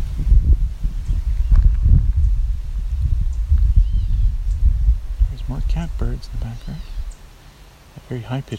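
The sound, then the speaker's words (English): A few short, nasal, cat-like mewing calls of a gray catbird, heard over a steady low rumble of outdoor noise and rustling movement. “Mew. That is also catbird.”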